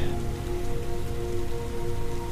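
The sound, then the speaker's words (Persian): Heavy rain pours down steadily during a thunderstorm, a dense, continuous patter of drops striking a surface, with no pauses and no voices. “رعد و برخها بر شدت باران میافزایند و او فقط نیم نگاهی به آسمان کرده و به راه خیش ادامه دهد.”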